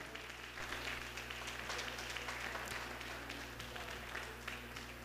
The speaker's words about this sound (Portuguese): Irmão, se você crê que Deus está aqui e que Deus é o Deus de milagre, dê uma salva de palmas então a Ele.